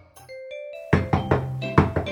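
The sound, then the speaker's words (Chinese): A few soft chiming notes, then a burst of rapid, urgent knocking by the king's herald on the door at an inn: about five loud, heavy raps in quick succession. No one speaks. “有一天，他正在客店里睡觉，突然传来了急促的敲门声。”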